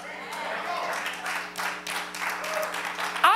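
An audience clapping together during a sermon in a steady, dense patter of applause that carries through the whole stretch, with a low constant hum beneath and a brief louder burst at the end.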